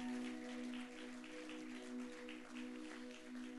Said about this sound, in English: Let's give him a round of applause.